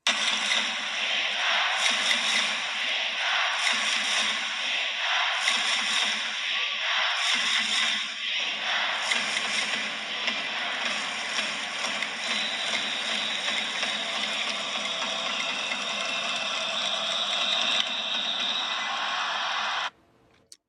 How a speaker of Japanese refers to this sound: で、これちょっとね、録音できたタイミングがチャンステーマではなかったので、恐縮なんですけど、でもこれチャンスのタイミングでの柳田選手への声、応援、柳田コールなんですけど、ちょっと聞いていただきましょうか。